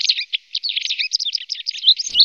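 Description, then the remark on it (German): A white wagtail twitters in a rapid, continuous run of high, thin chirps and trills, fairly loud and unbroken by voices, ending with a faint low rustle. “Das heißt, die kommt schon gerne mal so an Stadträndern und auch manchmal sogar in der Innenstadt vor und tirilliert dann auch so, wenn sie da wohnt.”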